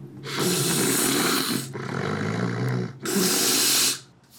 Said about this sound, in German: Ja, man, man hört ihn fast nicht mehr schnaufen, also ein bisschen, so ein bisschen kurz schnarchen. Ganz kurz, ja.